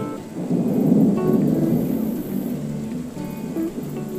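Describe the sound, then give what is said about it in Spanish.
Steady rain falls in a continuous, dense wash of noise with a deep rumbling undertone, like a storm, holding at an even loudness throughout with no voices. “Aguardamos a que oscurezca para poder encender la luz y desde dentro de nuestros cuerpos secos ver llover.”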